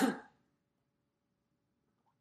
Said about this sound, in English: I thought I drank enough as far as water to clear my throat before this, but apparently not.